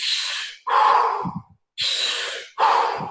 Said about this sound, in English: I'm going to be breathing with you but you just want you want to lock into your own rhythm, right? However uh, quick you want to